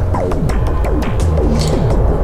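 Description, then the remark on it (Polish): A loud, low roar of an airplane overhead, steady and throbbing, with a pulsing engine whine that keeps dipping in pitch; no voices. “przepraszam za samolot, no ale co ja za nie mogę, tak?”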